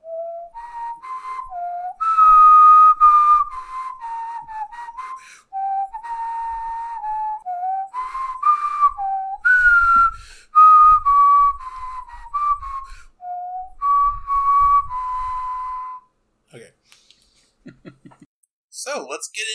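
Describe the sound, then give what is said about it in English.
A person whistles a tuneful video game melody, the clear notes gliding and stepping for about sixteen seconds before stopping, followed by a few soft clicks. “for those of you wondering what on earth I was whistling, you're not Final Fantasy fans”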